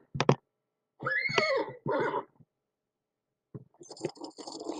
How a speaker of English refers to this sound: Is this a cow or a horse? It's a horse! Good job!